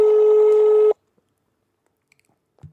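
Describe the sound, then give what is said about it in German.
A single loud, steady telephone ringing tone from a call to a mobile phone sounds for about a second, then cuts off into near silence, with only a faint short noise near the end. No one speaks. “ich glaube, er geht nicht. Aber ist, immerhin ist es schon mal an, das Handy.”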